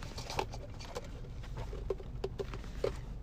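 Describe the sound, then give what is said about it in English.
A person gulps water: several soft, wet swallowing clicks come at irregular intervals over a low, steady background hiss, fairly quiet, with no talking. “Dude, quit drinking your water people can probably hear you gulping.”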